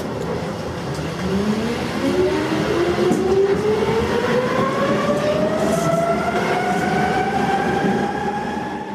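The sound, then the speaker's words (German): A Berlin U-Bahn train rumbles steadily through a tunnel as it sets off again, its motor whine rising in pitch as it accelerates over a continuous, loud roar of wheels on track. “Sie hat mich ein bisschen ausgelacht, weil ich das Aussteigen verpeilt hatte, aber dann ist sie mit mir gleich wieder losgefahren.”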